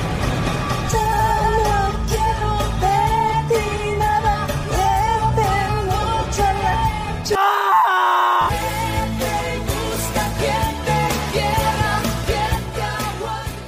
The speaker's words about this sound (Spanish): le mando ese extracto de … cantando como su personaje, la canción de su hijo en el carro cuando va manejando por reforma.